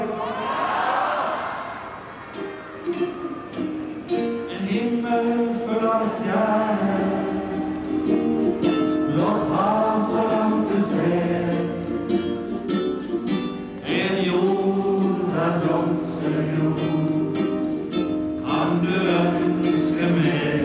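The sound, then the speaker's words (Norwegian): A huge crowd of over 40,000 people sings together in unison in the rain, thousands of voices blending into a loud, sustained melodic swell that rises and falls steadily with no pauses. “Dette er lyden av over 40 000 mennesker”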